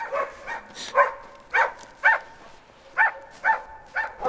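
A dog barks over and over in a steady rhythm, about eight or nine sharp, yelping barks at moderate volume, with no voices alongside.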